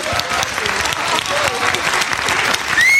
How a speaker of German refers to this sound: So, komm einmal zu uns hier auf die Bühne, einfach um kurz zum Vorstellen. Ein Riesenapplaus.